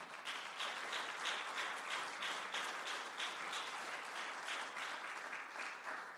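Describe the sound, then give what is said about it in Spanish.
An audience bursts into sustained applause for the Lord, many hands clapping together in a dense, steady roar for several seconds without any talking. “Dele un aplauso fuerte al Señor.”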